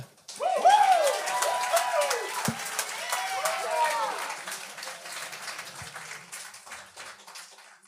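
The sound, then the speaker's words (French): An audience bursts into loud applause with whoops and cheers as the next performer is introduced on stage, dense clapping swelling at the start, then gradually thinning and fading over several seconds. “Euh, mesdames et messieurs, enfin, maximum de bruit”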